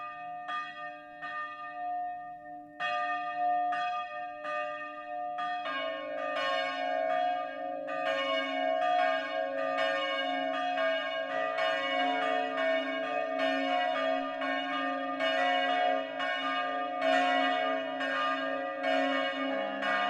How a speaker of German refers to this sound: Es ist 12 Uhr. Das Mittagsläuten kommt heute von der evangelischen St. Georgskirche in Bertholdsdorf, einem Ortsteil der mittelfränkischen Stadt Winsbach.